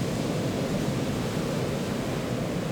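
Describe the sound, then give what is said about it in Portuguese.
Sea waves breaking on a beach at night, around 11 pm, heard as a steady, even roar of surf without distinct individual crashes, continuous, with no voices present. “Estou de frente para o mar.”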